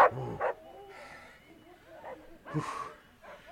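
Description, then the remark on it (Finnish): Dogs let out a few short, sharp barks spaced apart, with softer whimpering and snuffling in between, moderately loud. “Seis, koirat!”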